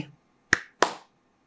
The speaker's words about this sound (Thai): คุณอาศัยอยู่แถวนี้เหรอ สามี ตะโกนถามไปต่อเขาตบมือตอบว่าใช่